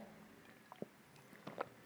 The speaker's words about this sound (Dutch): Sorry, even een slokje nemen.